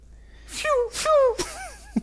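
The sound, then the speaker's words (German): A voice imitates Star Wars blaster shots with the mouth: three quick, breathy "pew" zaps, each sliding down in pitch. They are moderately loud, followed by a brief mouth click. “Oh, scheiße, ich wollte gerade den Star Wars Blaster Song in den Mund machen, aber das kann ich nicht.”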